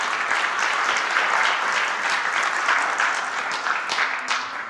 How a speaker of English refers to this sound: Yep. we clap for that.